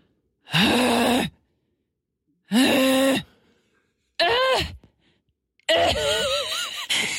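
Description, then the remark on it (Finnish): A voice imitates the straining, moaning grunts of someone lifting weights at the gym: four loud, drawn-out groans with short pauses between them, the last longest and wavering in pitch. “Se päästää seksiääniä. Joka kerta, kun mä oon salilla, niin mä kuulen jo kaukaa, kun alkaa kuulla semmoisia...”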